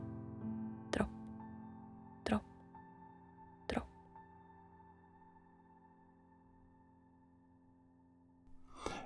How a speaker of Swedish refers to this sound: Och om man vågar sig in i trädgården och är riktigt tyst och lyssnar så kan man höra ljudet av en kran som droppar.